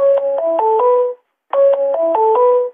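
A telephone ringing with a stepped electronic melody, played twice with a short pause between. It is loud, close and clear, with no voices.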